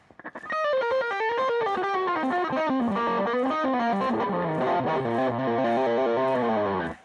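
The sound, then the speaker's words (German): A distorted electric guitar plays a loud, rapid run of notes, the pitch darting up and down in quick steps and then climbing at the end, with a gritty, buzzing tone and no voices. “Und jetzt pfeilschnelle Töne.”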